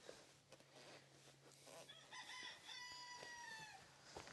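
A rooster crows loudly, one long drawn-out call rising then holding, over a background of many hens clucking and a steady low hum, where several roosters are kept with the hens.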